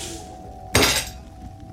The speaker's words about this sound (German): kramt er schon in seinen Unterlagen äh, nach einem passenden Vertrag, um dich auszubilden und knallt ihn mit einer, mit einer Wucht auf einen Holztisch